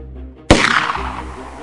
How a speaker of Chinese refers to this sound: 就在克达面思念独子哈利时，突然在三四百公尺远的地方响起了一声枪声。